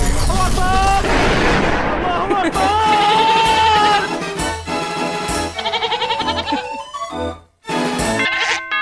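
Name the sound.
goat bleating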